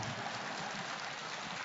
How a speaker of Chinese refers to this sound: 你看他们鼓掌厉害，那边不开心了，境界不高。